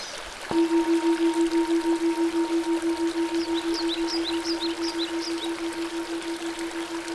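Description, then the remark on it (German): A small river flows and burbles gently and steadily, partly under a sustained low humming tone that sets in early, with faint brief bird chirps. “Du lauscht dem kleinen Fluss.”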